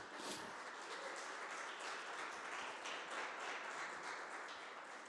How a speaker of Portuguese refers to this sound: Você é salvo, queridos, porque Deus te ama e aplauda ao Senhor Jesus Cristo bem alto.